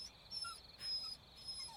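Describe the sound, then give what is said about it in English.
A puppy whimpers in thin, high-pitched whines as it is taken away by a sheriff, several short cries in a row, fairly quiet and without any talking over them. “Goodbye, puppy.”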